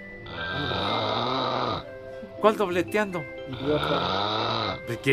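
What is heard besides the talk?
snoring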